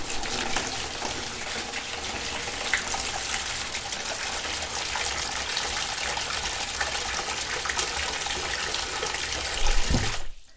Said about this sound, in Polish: jak już sobie napuścicie tej wody, no to wtedy dowolnie możecie sobie zrobić fale, takie jakie chcecie i jakich potrzebujecie, na przykład takie.